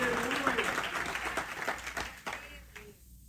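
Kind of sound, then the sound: crowd, audience applauding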